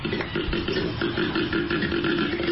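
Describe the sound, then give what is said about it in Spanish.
A koala's bellowing call: a loud, deep rasping drone that rumbles steadily with a faint pulsing texture throughout, with no talking over it. “¡A ti suena un koala.”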